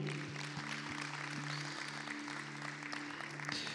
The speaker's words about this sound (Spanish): Démosle un aplauso otra vez, por favor.